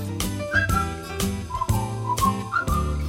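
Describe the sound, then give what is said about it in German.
A man's whistled melody, performed alone in a single take without overdubs, carries over a full band, with deep bass, steady drum hits and sustained chords underneath; the bright whistle notes glide and hold at a moderate level. “Für uns hat er es aber gerne nochmal vollkommen alleine, ohne Overdubs performt.”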